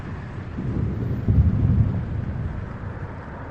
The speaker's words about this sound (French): avec le bruit des explosions.